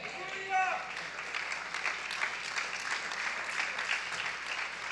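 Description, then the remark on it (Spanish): An audience at a sermon gives a thin, lukewarm round of applause, a steady patter of scattered claps running throughout at modest volume, with a brief voice heard near the start. “ese aplauso es como que no has tomado la leche espiritual.”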